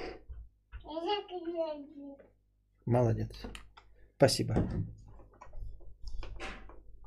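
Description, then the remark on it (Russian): A door swings shut with a single sharp thud, followed by some light rustling and clicks, while a man and a child speak briefly before and after. “Дверь закроешь?”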